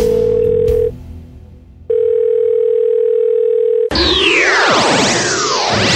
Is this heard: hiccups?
no